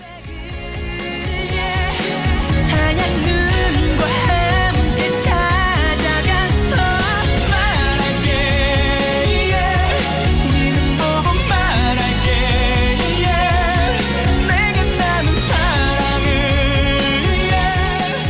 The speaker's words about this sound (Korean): 네, 그러면 일단 생각하면서 노래 한 곡 듣고 올게요.